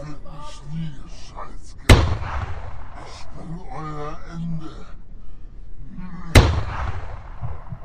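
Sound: gunfire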